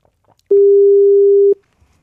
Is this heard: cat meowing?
no